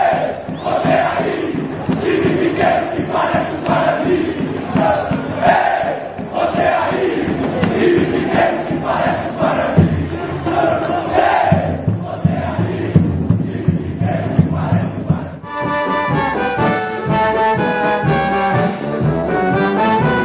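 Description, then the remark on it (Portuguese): A big stadium crowd sings a football chant together, loud and echoing, for about fifteen seconds before a cleaner solo-sung melody with music takes over. “Essa daí é uma das melhores de cantar em estádio, né?”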